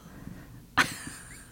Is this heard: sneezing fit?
yes